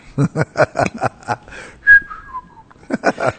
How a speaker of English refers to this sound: he told me he could whistle in Portuguese. I was about six years old, and I had him whistle a song in Portuguese, and he whistled, and family still laughs about it to this day. That I told him, I said that sounded just like English.